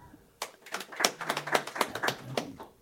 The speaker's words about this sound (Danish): Ja, øh, der er en, en, der rækker hånden op, mange, en, der klapper. hvor mange synes, det var et godt råd på at klappe?